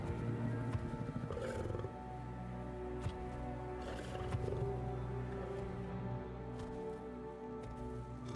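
A giant wolf in the game Soulframe, from the makers of Warframe, roars and growls in deep, rumbling bursts that run continuously for several seconds, loud, layered over a heavy low drone with no voices.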